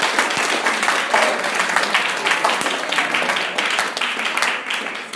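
A crowd breaks into a steady round of applause for the person who built the table in front of them, dense overlapping claps holding at an even, fairly loud level for several seconds with no voices over it.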